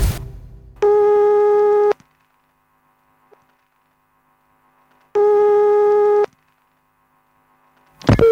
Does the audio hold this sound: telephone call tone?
yes